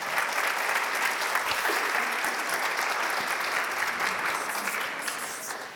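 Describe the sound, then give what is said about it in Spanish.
An audience applauds steadily for several seconds, a dense wash of many hands clapping at an even loudness that eases off slightly toward the end. “Un aplauso. Gracias por darnos esa idea.”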